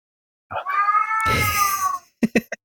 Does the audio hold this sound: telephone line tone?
no